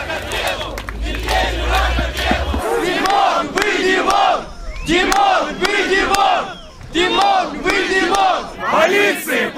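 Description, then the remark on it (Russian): A large crowd at a street protest rally, one of those held in 100 cities across the country, chants in unison, loud rhythmic bursts of many voices repeating a slogan with short pauses between each phrase, a low rumble underneath at the start. “На митинги и шествия люди вышли в 100 городах по всей стране”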